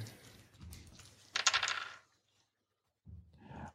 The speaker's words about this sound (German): Nee, nee, ja, nee, weißt du, wir machen jetzt einen Wurf für die Hörer und für nächstes Mal besorge ich mehr Würfel, weil sonst haben wir zu oft die gleichen Ergebnisse und das ist dann langweilig für mich.